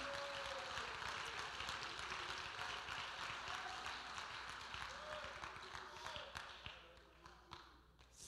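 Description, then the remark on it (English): An audience in a church claps their hands together in worship, a dense, sustained burst of applause, with voices murmuring and calling out underneath; the clapping gradually thins and fades toward the end. “Let's clap our hands.”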